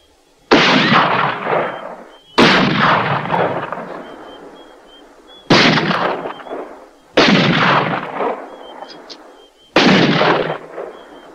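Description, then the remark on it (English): Five loud rifle shots fired toward rocks at uneven intervals, each a sharp crack followed by a long, booming echo that fades before the next shot. No voices. “McKenna lined up his rifle with the rocks and unloaded.”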